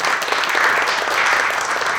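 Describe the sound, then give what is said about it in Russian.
An audience claps steadily in a dense, continuous wash of applause, fairly loud and sustained throughout, with no voices standing out above it, clapping in answer to being asked who had visited a social network that day. “Поаплодируйте, пожалуйста, кто сегодня заходил хотя бы в одну социальную сеть.”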